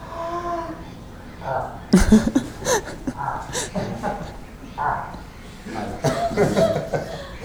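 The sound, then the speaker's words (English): A person vocally imitates a rutting moose in mating season: a drawn-out throaty tone, then a series of harsh, breathy grunts and cough-like bursts, loud. “Uh, uh, a really testosterone-filled moose sounds like this.”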